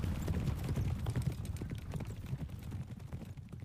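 Horse hooves clip-clop in a steady, quick rhythm of many hollow knocks over a low rumbling background, fairly loud, with no voices.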